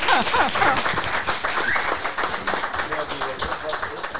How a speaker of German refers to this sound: Einen guten Applaus hier.